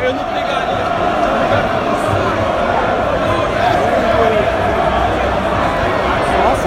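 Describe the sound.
A large crowd at a party fills the scene with a steady, dense roar of overlapping voices and chatter, loud and unbroken throughout, with occasional shouts rising out of the murmur.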